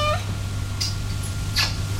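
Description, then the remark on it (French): A cat named Choupette lets out a short, rising meow right at the start, followed by a couple of brief, breathy chirps or rustles over a steady low background hum. “Choupette, choupette. Viens, le chat, viens.”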